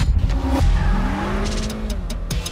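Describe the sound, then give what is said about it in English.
The turbocharged 3.0-liter V6 engine of a new Acura TLX Type S sports car, rated at 355 horsepower, revs hard, its pitch sweeping up and dropping between throttle blips, with a gritty, powerful roar and no talking. “the impressive performance of the new Acura TLX Type S. With a 3.0-liter V6 turbocharged engine that generates 355 horsepower.”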